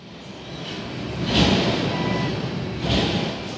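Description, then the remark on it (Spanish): Two heavy mechanical clanks, about a second and a half apart, ring out over a low steady machine hum, like old metal machinery grinding into motion. No one speaks. “Una serie de sonidos metálicos empezaron a escucharse, tal como si viejas máquinas fueran activadas.”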